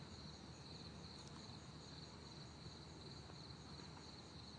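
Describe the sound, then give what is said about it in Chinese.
Insects chirp in a vegetable garden beside a main road, a steady, high-pitched pulsing drone that never lets up, sitting over a low, constant rumble of background noise. No one speaks. “但是你专心听，你会听到不知名的虫鸣，其实应该很知名吧，但是我们不知道。”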